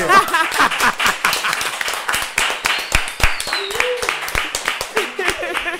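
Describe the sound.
A round of applause: many hands clapping in a dense, steady patter for several seconds, with voices calling and cheering over the clapping.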